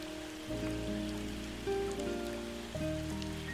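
Steady rain falling, a continuous soft hiss mixed with sustained, low musical tones that shift chord a few times. No one speaks.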